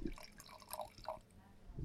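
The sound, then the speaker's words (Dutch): Shizen Mai Sparkling Sake, served cold from a blue bottle, pours into a glass in a steady, splashy trickle lasting about two seconds, with bright dripping and gurgling tones rising and falling at a moderate level. “Dus jij schenkt die eerst in.”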